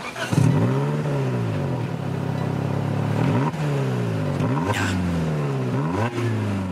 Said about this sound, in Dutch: Geloof het of niet, maar dit is het geluid van een Toyota Yaris. Ja, de leukste Yaris van de hele wereld.